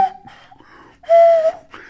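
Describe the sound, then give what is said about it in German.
A nose flute gives a breathy, airy whistle: a brief steady tone first, then a louder sustained note about a second later, with no talking. “Ich habe eine Nasenflöte geschenkt Wie bekommen.”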